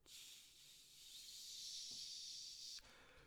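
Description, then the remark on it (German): A voice imitates the steady background hiss heard in an audio recording, a sustained breathy shhh lasting nearly three seconds at even volume before cutting off abruptly; no words are spoken. “Und, und ich habe und ich mach die, und ich schneide die Aufnahme und ich habe die ganze Zeit so einen Grundton in, de, in der Aufnahme. Also wie so ein Rauschen.”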